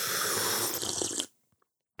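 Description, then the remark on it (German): Tea is slurped: a loud, airy slurping sound lasts just over a second, a broad hiss with gurgling texture, then cuts off into near silence with a couple of tiny clicks. “Ähm, ja, oder hier an dem äh, T-Schlürf-Sound.”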